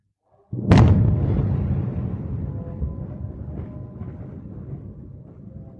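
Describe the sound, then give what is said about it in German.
A single loud, distant explosion bursts out after a moment of silence, then a deep rolling rumble lingers and slowly fades over several seconds. No voices are heard. “really just striking the video with the silence and the sounds like prayer or call to prayer coming from presumably a mosque and then periodic loud explosions and flashes.”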